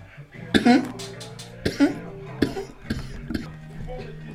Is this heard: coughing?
yes